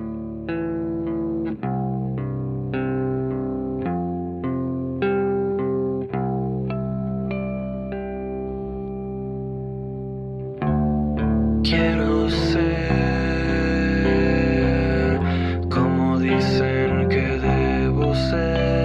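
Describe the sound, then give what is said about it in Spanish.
A garage rock song from Mexico City with fuzzy, distorted electric guitars strumming steady chords, growing louder and denser about halfway through as drums and cymbals crash in. No voices. “este tipo de género mucho más garage, mucho más, eh, mucho más rock de la Ciudad de México.”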